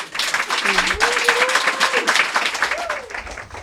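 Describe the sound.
An audience applauds a performer steadily throughout after her final answer, a dense crackle of many hands clapping at an even loudness, with a voice briefly rising over the noise.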